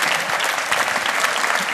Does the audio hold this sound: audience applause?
yes